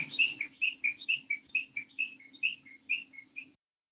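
Wild birds chirping in a quick, steady run of a dozen or so bright, high notes, fairly soft, over a low, constant hum that stops when the calls end.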